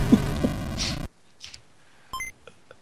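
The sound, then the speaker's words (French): A Game Boy-style boot-up chime as the Nintendo logo scrolls down: a short, bright two-note electronic ping that rings out briefly after some low thumps and hiss, then fades into quiet. It comes from a hidden intro reached only with an Action Replay code. “tu sais, façon Game Boy, t'as le logo Nintendo qui, qui descend, ou paraît que pour Sega, à la place du E, il y a un point d'interrogation.”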